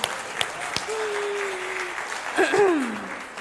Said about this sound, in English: Let's just clap for that. Isn't that beautiful?